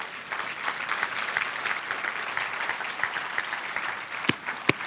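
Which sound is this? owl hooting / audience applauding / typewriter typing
audience applauding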